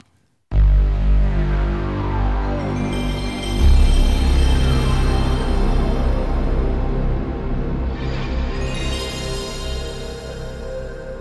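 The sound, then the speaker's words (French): PlayStation 1 console startup sound: a deep, swelling synthesized drone that opens abruptly, thickens with a low boom, then glitters with high shimmering tones before slowly fading, heard alone and loud. “C'est le son d'ouverture de la PlayStation 1.”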